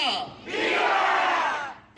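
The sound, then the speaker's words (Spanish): A crowd shouts the Mexican independence cry together at the Arizona State Capitol, a loud, sustained roar of many voices that swells after a brief dip and holds steady before fading at the end. “Así fue como el año pasado por primera vez se celebró el grito de independencia de México en el Capitolio de Arizona.”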